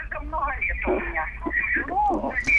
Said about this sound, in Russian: И э, будьте любезны, пожалуйста, радиоприемник. Де... Э, секундочку, радиоприемник делаем потише. А. Убираем так, звук ага. радиоприемника. Так, убрал. Спасибо огромное. Убрала.